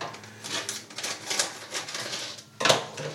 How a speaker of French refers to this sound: On va mettre du sel, forcément. Là, pour cette recette-là, je vais utiliser de la fleur de sel pour apporter un peu de croquant. Je suis assez fan de fleur de sel.